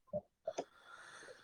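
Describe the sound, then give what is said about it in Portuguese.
A quick, muffled sneeze in two short bursts, a soft intake followed by a sharper expulsion, fairly quiet, then a faint breathy hiss trailing off. “Saúde.”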